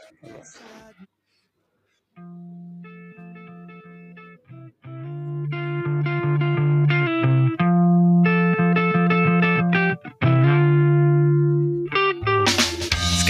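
A rock song begins with sustained, slightly distorted electric guitar chords and sliding notes, building in loudness after a brief pause, with a burst of brighter noise near the end.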